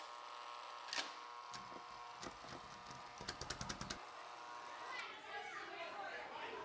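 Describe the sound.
Children playing outdoors, their voices blending into a busy, steady background hum. Scattered knocks and a quick run of sharp tapping sounds break through the lively chatter.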